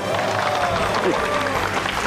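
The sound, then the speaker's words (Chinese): The audience of the television show 全民新攻略 applauds to signal approval, a dense, steady wash of clapping that holds at an even level for about two seconds, with faint voices mixed into the noise. “两周之内就要把它变成零级，掌声表示通过。”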